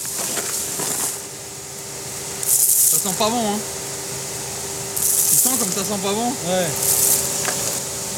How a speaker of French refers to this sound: Ah, et ça, c'est le bruit d'une déchiqueteuse pour les plastiques.